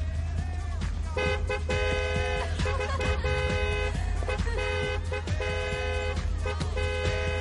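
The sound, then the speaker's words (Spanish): Car horns honk repeatedly in overlapping bursts, steady tonal blasts starting and stopping over a constant low engine rumble, loud throughout with no clear talking. “¿O vais a seguir pitando?”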